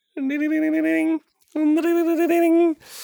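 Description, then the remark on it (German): A person vocally imitates an old-school American landline telephone ringing: two loud, warbling trills, each about a second long, separated by a brief pause, with a short breathy noise at the end. “dieses amerikanische, dieses Oldschool-Klingeln, was es hier gar nicht gab, ne?”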